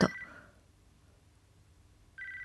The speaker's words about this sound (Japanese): 鳴り続ける着信音はまるで踏切の音。